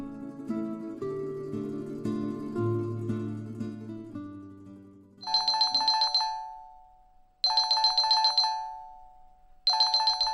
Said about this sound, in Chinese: 看着空病床，陷入沉思的英顺，被突如其来的手机铃声吓了一跳，拿起来一看，是丈夫打来的。